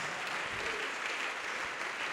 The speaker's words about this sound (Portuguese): E vamos aplaudir mais.